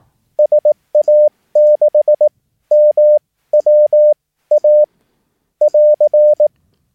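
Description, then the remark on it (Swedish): A single steady beeping tone keyed on and off in quick dots and longer dashes, grouped into several separate characters: a general call sending a radio call sign in Morse code, clear with no voices. “Alltså det från. Sigurd Adam 6 Martin Wilhelm Adam.”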